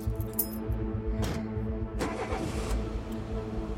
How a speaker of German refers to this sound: Zusammen mit seiner Sekretärin sieht er dabei zu, wie der Truck vom Hof fährt.